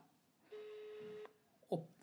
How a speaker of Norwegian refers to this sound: Skal vi se, da ringer det. Ja. Det er kjedelig hvis han ikke tar den, da.